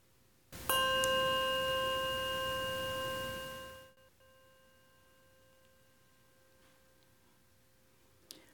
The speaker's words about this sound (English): We now invite you to come forward to name your loved one. Light a candle, and we will ring a bell to honor each one.